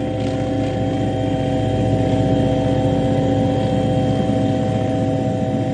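A steady, loud motor whine from a remote-controlled toy aircraft hums continuously, with strong tonal bands and a buzzing, propeller-like drone that holds level throughout without any voices.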